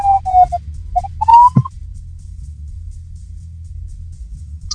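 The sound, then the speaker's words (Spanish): An ambulance siren sounds in short, high wavering tones, with a rising whoop, for under two seconds as the ambulance passes through traffic on Avenida de Tlalpan, then gives way to a steady low traffic rumble. “Eh, hoy vamos a hablar de un tema que vamos a dejar pasar esta ambulancia”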